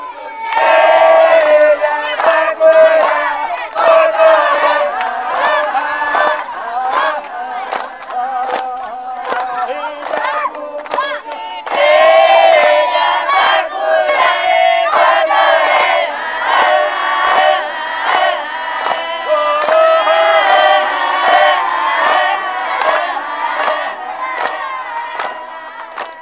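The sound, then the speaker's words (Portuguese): A crowd of children shouting and calling out while playing games in a schoolyard, their overlapping high voices loud, surging in lively bursts with no break for the whole stretch. “Você está ouvindo a faixa …, do disco ….”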